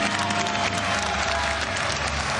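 A large theatre audience gives a standing ovation, a dense wash of many hands clapping at once, loud and continuous with a faint murmur of crowd noise beneath.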